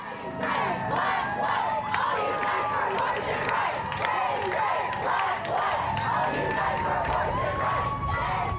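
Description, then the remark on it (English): A large protest crowd marching up Market Street, at Market, 16th and Noe, fills the scene with continuous chanting, shouts and cheering. Drivers honk their horns in support and people cheer from a bar's wraparound balcony. Many overlapping voices rise and fall at a steady, loud level throughout. “Then, up Market Street, protesters marched, garnering support from drivers by, honking their horns, and folks cheering from the wraparound balcony at the queer bar The Lookout up at Market 16th and Noe.”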